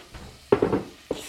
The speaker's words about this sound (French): On va ouvrir la bouteille de blanc